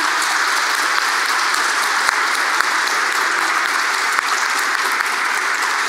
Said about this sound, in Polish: E, dobra, no to gromkie brawa. Dziękuję.